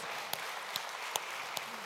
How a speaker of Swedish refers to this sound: Oh, let's clap unto the Lord Jesus Christ. Låt oss ge en applåd till Jesus.